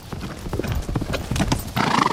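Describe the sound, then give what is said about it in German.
Horses with riders gallop across a large field of soft, uneven ground in a quick, rocking rhythm of loud thuds, with a brief whinny or snort near the end; no voices. “Nach einem schnellen Galopp, der aber nie hektisch, sondern mehr schaukelnd rhythmisch bleibt, erreichen wir einen kleinen Wald.”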